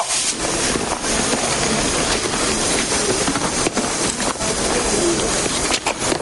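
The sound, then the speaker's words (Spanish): Busy train station ambience with a steady, loud rumble of a train throughout as soldiers walk along the platform, and pigeons cooing faintly. No one speaks. “mientras en una estación de trenes varios soldados caminan por el andén.”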